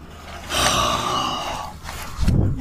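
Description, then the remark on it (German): A three-month-old young pig snorts, a drawn-out breathy snuffle followed by a short, deeper snort near the end, with no talking. “Ähm, ich nehme kleine Schweine auf. Die sind, ähm, wie, wie, alt sind die? Drei Monate.”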